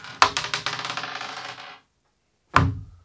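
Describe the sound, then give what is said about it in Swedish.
A die is rolled and tumbles across a hard tabletop with a quick run of clattering bounces that settle, followed after a short silence by a single sharp knock, fairly loud. “Eh, slå ett tärning.”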